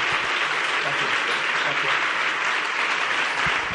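Steady audience applause fills the whole stretch, a dense wash of many hands clapping at an even, sustained loudness with no pauses or voices standing out.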